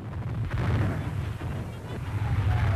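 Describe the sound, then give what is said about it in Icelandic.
Bombs dropped on the president's orders exploding on the Forbidden City in China in a dense, continuous barrage: deep booming rumble with crackling bursts layered over one another, loud and sustained throughout with no pauses and no voices. “Þá létt fórsetin henda sprengjum á forbúðinu borgina, eitthvað sem hafði aldrei gerst áður.”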